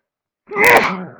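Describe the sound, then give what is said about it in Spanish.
A single loud sneeze bursts out after a moment of silence, with a sharp explosive onset and a breathy trailing decay. “Después estornudo con el rock calendario de En Tijuana hay rock.”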